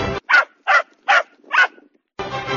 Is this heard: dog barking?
yes